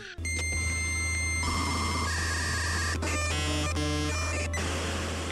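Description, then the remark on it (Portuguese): A dial-up modem handshake: dense screeching static and layered steady tones, then rapid stuttering bursts of chirps and beeps over a constant low hum, loud and continuous with no talking. “O, o, o número para qual você discava era o número do modem, que era como se fosse um número de telefone.”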